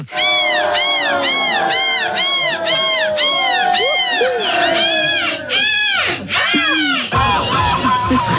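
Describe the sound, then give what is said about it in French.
At the World Seagull Cry Championship in Dunkirk, France, the winning contestant, dressed in feathers, loudly imitates a seagull's cry: a rapid string of high, yelping calls followed by longer drawn-out wails, strong, with crowd noise rising near the end. “Hier, un prix mondialement attendu, une compétition internationale, le championnat du monde du cri de la mouette. Ça donne ça.”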